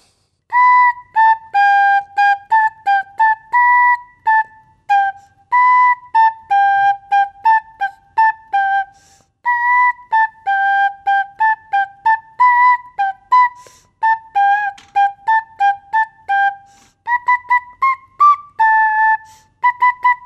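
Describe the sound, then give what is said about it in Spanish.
A seven-year-old girl plays a simple melody on a flute at a radio station, a steady run of short, clear, breathy notes in a middle-high register, with brief pauses between phrases and no voices. “favoritos, la guitarra y la, flauta, flauta, de esta multiinstrumentista”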